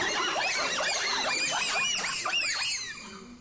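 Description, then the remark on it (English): Wild bonobos in an aggregation in Congo (Zaire) call in a dense chorus of high, squeaky, rising-and-falling shrieks that overlap continuously, with no talking, before fading slightly at the end. “And the sound is unique.”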